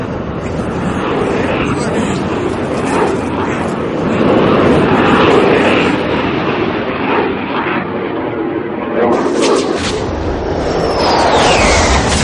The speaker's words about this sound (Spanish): Los aviones americanos bombardean la zona.